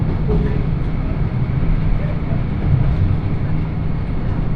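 Steady low rumble of a Yodo Line train running on rails from Uwajima to Chikanaga, Japan, heard from inside, with a continuous droning roar and faint rhythmic clatter throughout, loud and constant with no breaks.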